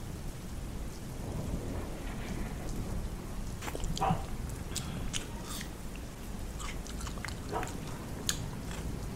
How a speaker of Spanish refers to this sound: muy concentrada en las melodías que destilaban las gotas cayendo contra el tejado